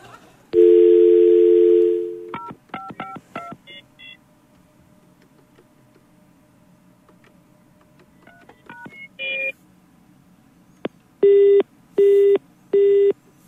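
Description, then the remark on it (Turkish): A steady telephone dial tone, then quick bursts of keypad dialing beeps as someone calls a person again, and finally three evenly spaced, loud call-progress tones pulsing on the line with no one speaking. “bir dakika bir daha arayayım ben şunu.”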